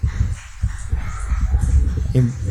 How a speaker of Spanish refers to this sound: este aplauso para todos los, médicos y, personal de la salud. La verdad, a todos que la verdad que un, un trabajo muy grande. Eh. escuchen, se escuchan los gritos y escucha. Eh, y yo tengo ah, los auriculares. Ahí va, se está sumando más gente.